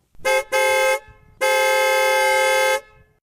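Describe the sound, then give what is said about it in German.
A loud car horn honks three times: two short blasts in quick succession, then a longer sustained blare, with no talking. “Die Autohobe eben ist nur eine von vielen Lärmquellen”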